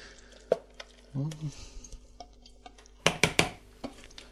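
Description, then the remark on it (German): Kitchen clatter of a utensil knocking against a pot, with soft wet scraping as a thick mixture is tipped back in with tomato paste, then a quick cluster of sharp metallic taps near the end; a brief murmured voice. “Und tue jetzt die Mischung wieder zu den ähm, Tomatenmark hier.”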